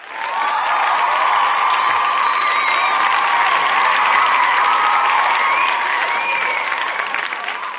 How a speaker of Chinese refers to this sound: 白吃白喝的顾客一听，老板出来了，原来这么大方的人是他呀，顿时响起了雷鸣般的掌声。